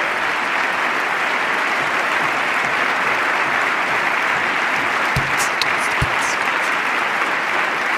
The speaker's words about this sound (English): Boy, they're clapping that.